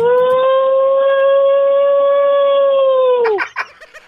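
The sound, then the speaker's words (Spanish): A voice on a radio show imitates an ambulance siren: one loud, steady, held tone for about three seconds that dips in pitch and cuts off, followed by a few short, brief sounds. “¿cómo le hiciste ahorita como ambulancia?”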